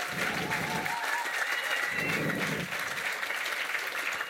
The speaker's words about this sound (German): Ein, ein herzlicher Applaus noch für diesen Titel. Verdient.